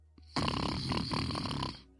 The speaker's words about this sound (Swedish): Han snarkar så jävla högt.